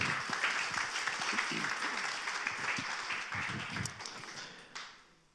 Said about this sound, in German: Applaus. Danke.